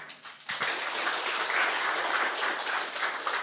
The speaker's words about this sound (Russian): Слишком радостный аплодисмент.